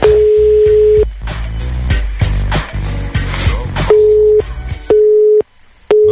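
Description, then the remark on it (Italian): A steady telephone busy tone beeps on and off in short repeated pulses, loud, over a dense burst of music or noise after the caller hangs up, then continuing alone in clean intermittent beeps. “eh, chiude il telefono, la paura, la paura, la paura di essere moralizzato, certo.”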